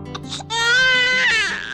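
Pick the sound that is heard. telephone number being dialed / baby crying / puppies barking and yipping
baby crying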